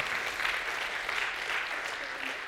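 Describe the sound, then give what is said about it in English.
A crowd applauds steadily, a dense wash of clapping with scattered cheers and whoops mixed in, holding at an even level throughout. “And so get ready to get your cheer on because uh, Meridian Township gave us unanimous approval for the property, right?”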